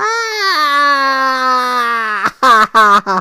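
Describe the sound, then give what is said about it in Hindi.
A voice imitates a farmer's scream of pain after a donkey bites him on the backside: one long, strained, high-pitched yell held for about two seconds, followed by three short, sharp shouts in quick succession. “किसान चिल्लाया और गधा भाग गया”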